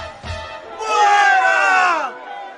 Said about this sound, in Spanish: Al llegar a las gradas del cuartel, los soldados tuvieron que llevar a Pablo a cuestas, debido a la violencia de la gente, porque todos iban detrás gritando.